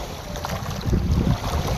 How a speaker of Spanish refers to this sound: desde la playa y el mar. Quisiera que escucharas este sonido allá donde estás con tus ojos cerrados. Quisiera pedirte desde el corazón que empezaras a escuchar las olas del mar.